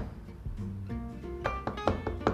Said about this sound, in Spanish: Es John Carpenter. Es John Carpenter, vamos a tocar a su puerta.